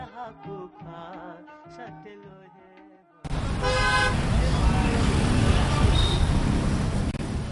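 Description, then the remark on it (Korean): After a quieter tonal opening, loud, dense street noise cuts in abruptly: a steady roar of traffic and bustle in the city of Kathmandu, Nepal, with car horns honking near the start, continuing to the end. “비행기에서 내려 공항을 빠져나와 시내로 들어서면 우리를 가장 먼저 맞이하는 건 소음과 먼지입니다.”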